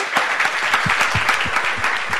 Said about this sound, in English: Okay, well, I would love well, I've had a lovely time, and I would love everyone to give a huge round of applause to the fantastic panel.